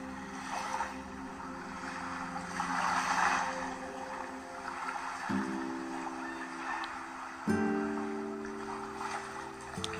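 Gentle waves wash in and recede on a deserted beach in slow, soft swells, heard beneath a sustained, calm musical drone whose tones shift a couple of times.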